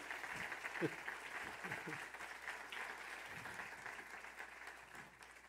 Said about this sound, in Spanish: recibámoslos con un aplauso, por favor.